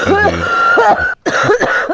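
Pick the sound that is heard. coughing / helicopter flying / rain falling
coughing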